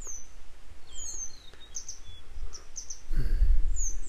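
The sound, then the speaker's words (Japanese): A bird, separate from two other birds, sings in the distance: a series of thin, high chirps and short trills repeating over a low outdoor rumble, with a louder burst of rustling or handling noise near the end. “この2羽の鳥とは別で、別の鳥が奥の方で楽しそうに鳴いてるのがまたちょっと切ないですけど。”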